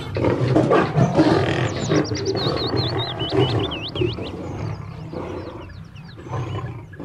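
A lion roars loudly, a deep rumbling roar sustained over several seconds, with high chirping bird calls scattered above it.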